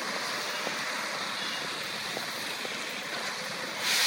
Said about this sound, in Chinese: 下雨了，这场雨就这样突然的来临了。